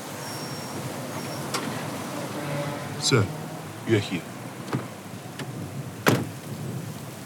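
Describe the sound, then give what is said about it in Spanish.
Steady rain hisses throughout as a person steps out of a car and walks quickly with a couple of bodyguards to avoid getting wet; a car door thumps and a few sharp clatters and footsteps cut through, with muffled voices underneath. “Mientras desciende del auto y camina rápido para evitar mojarse junto a un par de guardaespaldas”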